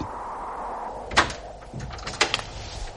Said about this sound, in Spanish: Tras llamar y esperar unos instantes, la gruesa puerta de roble se abre